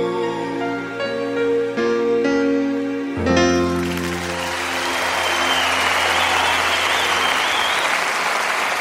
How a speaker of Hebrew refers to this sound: וואו, מגיע לו, תאמינו לי, מגיע לו מחיאות כפיים כאלה ענקיות.